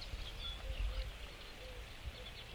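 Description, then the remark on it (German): A sedge warbler sings faintly in the background, a scattered run of thin chirps and trills over a low outdoor rumble, with no one talking, early in the morning at a reedy edge where land meets water. “Einen Schilfrohrsänger hören wir im Hintergrund.”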